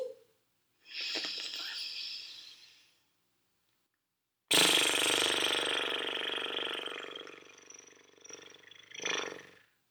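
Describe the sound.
During a relaxation breathing exercise, a person releases held breath through the mouth, blowing air out through loosely fluttering lips to imitate a horse's snort. A short breathy burst comes first, then a longer, louder buzzing exhale that tapers off.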